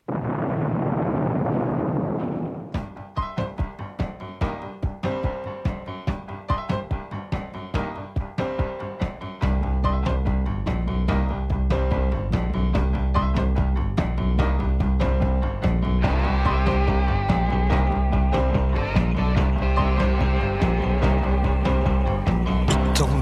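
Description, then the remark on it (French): A rock song plays loud, opening with a deep rumbling boom before steady, driving drum hits take over, with heavy bass and brighter instruments joining partway through. “Alors ça, c'est pour vous la musique qu'on va entendre, Franz Olivier Gisbert.”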